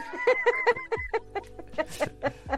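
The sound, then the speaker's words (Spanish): A pet duck quacks in a quick series of short, nasal, buzzy calls, about ten in a row, fairly loud with no one talking. “ya duérmete, pato. buenas noches, chiquito bebé.”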